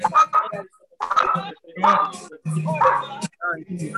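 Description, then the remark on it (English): Dogs bark and woof in a series of about five drawn-out, fairly loud bursts separated by brief pauses, with a yowling, almost talk-like quality. “Dogs are talking.”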